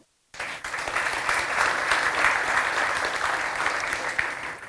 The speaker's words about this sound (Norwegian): En varm applaus til begge to.